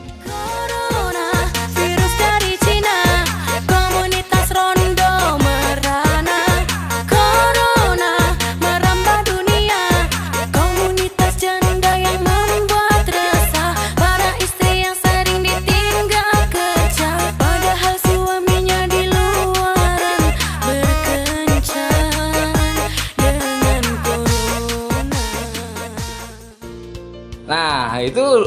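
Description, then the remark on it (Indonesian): A loud, upbeat novelty pop song about the coronavirus plays continuously with a bouncy, steady beat and a sung vocal melody over bright synth backing, its music taken from a TikTok tune, fading out abruptly near the end. “dari lagunya itu sudah kedengaran lagunya tentang corona, kemudian musiknya pun tidak kreatif karena ngambil TikToknya SpongeBob”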